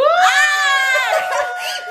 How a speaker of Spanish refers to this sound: Porque me encanta nuestra reacción cuando decimos algo que da mucho cringe. Es, es una nota aguda